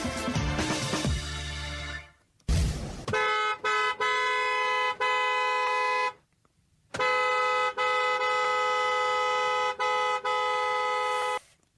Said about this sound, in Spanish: Bueno, perdón si vienen en el coche y ya hay demasiados autos tocando el claxon y acá también escuchan un audio, audio, tocando el claxon.